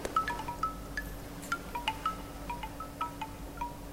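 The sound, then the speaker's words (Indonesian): A steady, low rush of sea wind blows throughout, with a series of short, high squeaky creaks from a rickety wooden window repeating irregularly over it. No one speaks. “Jendela kayu yang reot berderit-derit terpa angin laut.”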